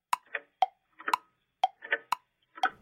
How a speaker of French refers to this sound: Mais tout redevint silencieux. On n'entendait que le tic-tac ininterrompu des horloges.